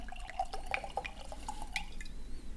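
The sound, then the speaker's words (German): Rosé wine made from Tempranillo and Prieto Picudo grapes pours steadily into a glass, a soft liquid trickle broken by quick glugs and bright little splashes for a couple of seconds, with no one talking. “Dann schenke ich mal ein.”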